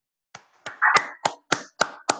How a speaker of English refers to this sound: Can you hear me? Can you hear me clapping? I, I sure can.